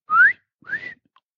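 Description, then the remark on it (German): Two short rising whistles from a person, whistling to trigger a keychain finder, one after another with a brief pause between them, with no talking. “Ich hatte früher als Kind mal so einen Schlüsselanhänger, da hast du dann gepfiffen und dann hat er angefangen zu piepsen.”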